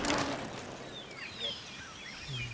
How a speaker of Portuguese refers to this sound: O que você está ouvindo é o canto dos pássaros em Petrópolis, no Rio de Janeiro